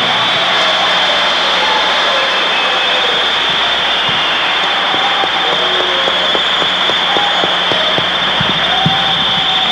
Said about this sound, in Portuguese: Gente, salva de palmas para esse pessoal que está aqui, por favor.